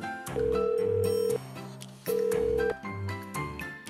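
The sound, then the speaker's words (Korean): Phone ringback tone of a call to a noodle shop to place a takeout order: two steady, fairly loud electronic beeps, the first about a second long and the second shorter, over a soft background melody, with no voices. “그렇게 다음 날이 됐고 저는 일부러 손님이 뜸할 시간에 맞춰 국수 가게로 전화를 걸었어요.”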